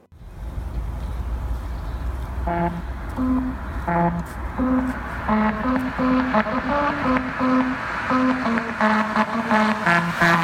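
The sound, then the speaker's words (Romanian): Over a steady low road rumble, tires hum a clear tonal melody from resonant grooved road markings, arranged so that driving over them at certain speeds plays a tune; the notes step up and down in a steady rhythm for several seconds, loud. “Eci că aceste striații se numesc marcaje rezonatoare și pot fi aranjate în așa fel încât uh, dacă le calci la anumite viteze, sunetul ăla reprezintă o melodie”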